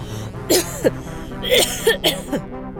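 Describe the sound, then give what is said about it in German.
A person coughs repeatedly and persistently: two sharp, throaty coughs, a short pause, then a quicker run of three or four hacking coughs with no talking. “Wieder ein Husten.”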